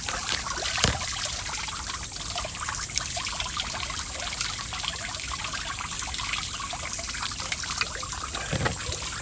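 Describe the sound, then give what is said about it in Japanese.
Steady running water from a tap downstairs splashes and trickles continuously, with a slightly muffled, wet quality as it falls onto a towel being wetted to make a cool towel; no one speaks. “えまあ口を濡らして今下の水道でひんやりタオルをいい音ですね”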